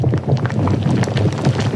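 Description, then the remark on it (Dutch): Bubbling, glowing-hot molten lava churns with a steady low rumble, dense with irregular pops and crackles throughout, loud, with no voices present. “Dit is het geluid van gloeiend hete, bubbelende lava.”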